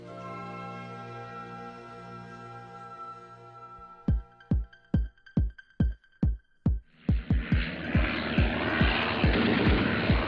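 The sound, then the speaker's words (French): A German propeller airplane drones steadily as it comes in to attack, then a run of sharp, evenly spaced bangs cuts in, followed by a loud rushing roar with more bursts beneath it. No voices. “Et il y a un avion allemand qui vient et qui l'attaque.”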